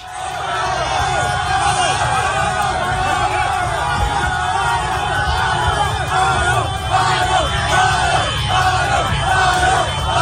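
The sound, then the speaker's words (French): A dense, roaring crowd cheers and shouts continuously outdoors at a celebration in Conakry, Guinea, for the return of the national football team after its historic Africa Cup of Nations quarter-final, with overlapping yells and whoops rising above a steady wall of noise. “Et avant de parler de tout ça, on va partir euh, direction Conakry, en Guinée, où il y avait la fête aujourd'hui.”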